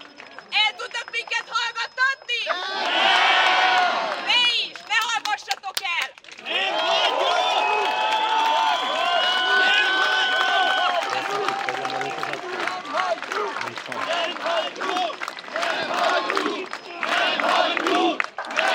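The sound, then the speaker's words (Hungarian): A protest crowd at a Momentum movement demonstration in front of Sándor Palace cheers and shouts in loud, sustained bursts, with whistles and clapping mixed into the roar. The noise swells, briefly dips around the middle, then surges back strongly. “Az előzőben a Sándor Palota elől közvetítettük a Momentum mozgalom tüntetését”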